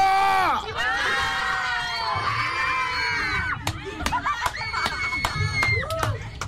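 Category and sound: crowd, audience shouting and cheering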